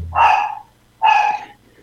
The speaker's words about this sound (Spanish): ¿y cómo se llama la mascota que está ladrando?